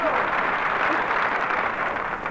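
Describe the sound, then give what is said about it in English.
Steady, dense audience applause fills the whole stretch, a continuous wash of many hands clapping at an even, fairly loud level with no voices standing out. “Applaud on me.”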